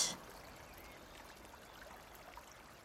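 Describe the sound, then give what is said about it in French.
Steady flowing water of the Brivé river, northwest of Nantes, a soft continuous rush and babble, with a brief brighter splash at the very start and no voices. “Au nord-ouest de Nantes coule une rivière, le Brivé.”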